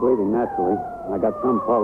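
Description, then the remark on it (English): An ambulance siren wails steadily in the background, its pitch slowly sliding lower, while people talk urgently over it in the foreground. “That's the ambulance.”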